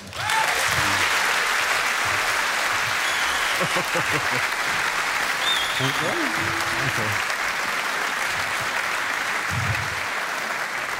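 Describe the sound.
A steady wash of audience applause for a commentator being introduced fills the whole stretch, loud and sustained, with scattered voices and a few faint tonal sounds poking through the clapping.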